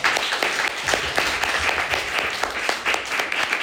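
An audience applauds warmly to welcome a consultant giving the first lecture, many hands clapping in a dense, continuous patter of sharp crackling claps that holds at a fairly loud, even level without fading, with no voices heard.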